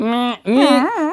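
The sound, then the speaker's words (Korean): A person hums a steady, nasal whine to imitate a mosquito for a sound quiz, breaks off briefly, then resumes with a wavering, rising-and-falling pitch. Fairly loud, with no other sounds. “음, 처사가 지나면 모기 입이 삐뚤어진다.”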